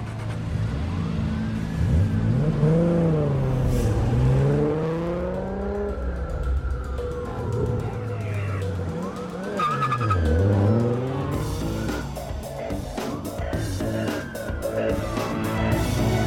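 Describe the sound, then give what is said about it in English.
A car engine roars and revs through rising and falling pitch sweeps, with tires squealing as it speeds along, loud, with no talking. “I owe you a 10 second car.”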